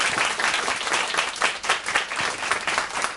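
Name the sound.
audience applause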